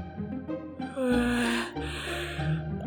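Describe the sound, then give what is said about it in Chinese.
A voice acts out a big, drawn-out yawn by a wooden door in a story, a loud breathy vocal sound that swells in the middle and trails off with a snort-like exhale. “丹影走到木门前，举起了右手，正要敲门的时候，木门就打了个大大的哈欠，说：”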